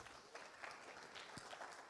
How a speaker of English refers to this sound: Can we just give the Lord another applause offering?